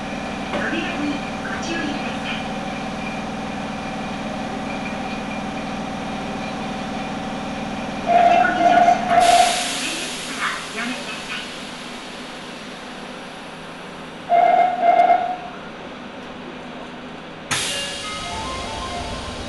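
A Nagoya Municipal Subway Higashiyama Line train in Nagoya, Japan, running from Takabata toward Fujigaoka, rumbles steadily with a low, continuous hum, its roar swelling partway through as it picks up speed; two short bursts of bright electronic tones ring out over the noise.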